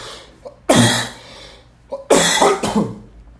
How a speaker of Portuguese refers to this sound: Peraí que eu vou tossir.